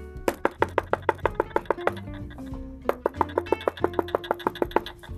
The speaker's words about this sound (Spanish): En ese momento tocó a la puerta la mamá de Aníbal.